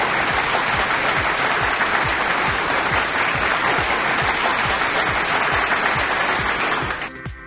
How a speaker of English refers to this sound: let's applaud Gabby, a new lead admin Forever Sonic, for the future!